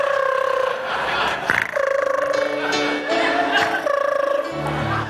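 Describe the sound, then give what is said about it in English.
A voice imitates a woman's soft, bird-like snoring: steady warbling tones that shift pitch every second or so, held continuously for about five seconds. “I've said before, she doesn't snore like that. It's more like a.”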